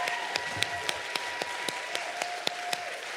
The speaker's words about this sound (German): Can we put our hands together for the team that has made it to happen this morning? Lasst uns nochmal dem Team einen Applaus geben, die diesen Morgen gestaltet haben.